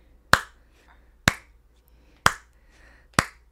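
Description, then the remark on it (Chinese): Four sharp, crisp hand claps land at a steady, even pace just under a second apart, marking beats two and four for rhythm practice, each one bright and quickly fading, with near silence in between and no voices. “所以呢，你数一二三四的时候呢，你的二跟四要跟我的手的声音合在一起。”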